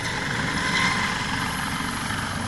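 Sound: helicopter flying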